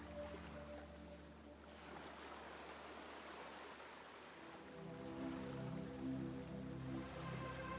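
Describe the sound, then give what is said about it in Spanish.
Ocean waves wash steadily onto the shore, a continuous hiss of water that swells louder toward the end, with a low steady hum running underneath and no voices. “Luego la siguiente ola dibuja una figura en torno a ti.”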